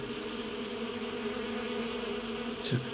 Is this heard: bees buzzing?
yes